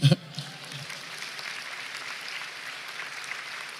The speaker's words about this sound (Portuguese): Aplaude Jesus aí.